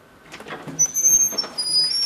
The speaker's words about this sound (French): Donc là, on est, on est dans le cadre classique, on ouvre cette porte ensemble.